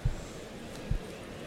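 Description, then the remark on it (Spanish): Two dull, low, soft hoof thuds about a second apart from a trotting 10-year-old, 595 kg chestnut horse ridden by a picador in a bullring during a bullfight, over a steady background hum with faint murmuring. “Y el caballo que va al trote, mira, el caballo castaño”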